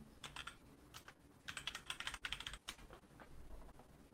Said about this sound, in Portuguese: Teclado barulhento, hein?